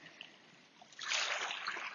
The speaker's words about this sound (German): Und deshalb hörst du Wasser plätschern, du hörst Wellen rauschen, du wirst Wind eventuell hören, diverse Nebengeräusche.